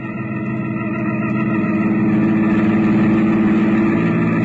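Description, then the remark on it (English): A car engine runs steadily, its low mechanical hum gradually rising in loudness as the car pulls out of a garage, with no voices present. “I slipped down the back stairs, and before Catherine and Sylvan spotted me, I had my car out of the garage.”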